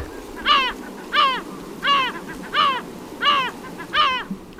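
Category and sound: bird, gull calls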